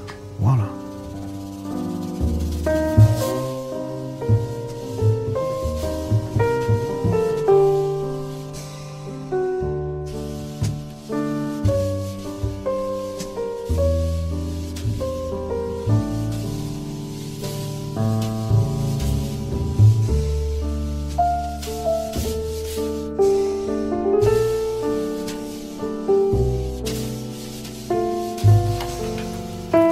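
A jazz piano trio plays continuously, with flowing piano lines over a walking bass and soft drums, steady and moderately loud throughout, with no voices.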